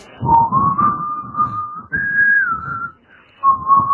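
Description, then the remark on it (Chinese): Breathy music on the shakuhachi, a Japanese instrument, playing a piece called 咒: long held notes that bend slightly in pitch, with an airy rush beneath them, a brief quiet gap, then another sustained tone. “是这个，他说的他吹的一个， 哦，他模仿的是尺八的声音吗， 不是他吹的一个尺八的曲子叫咒。”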